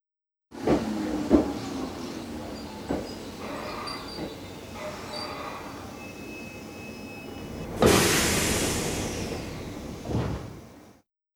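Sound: train arriving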